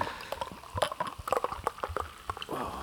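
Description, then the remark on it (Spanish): Sparkling lambrusco wine is poured and fizzes, a dense crackle of tiny bubbles popping in quick irregular bursts, ending in a softer steady hiss as the foam settles. “Uf, es que sí que tiene algo de gaseoso extra, ¿eh? está haciendo un burbujeo.”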